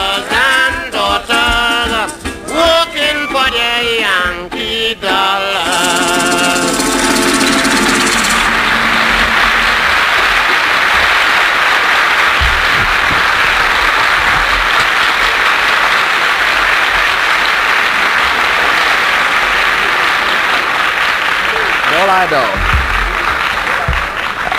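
audience applause

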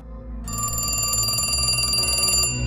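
telephone ringing

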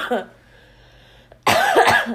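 smoker's cough

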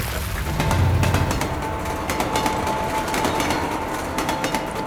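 train running on rails

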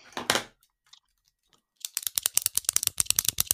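pen clicking

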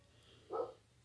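dogs barking outside

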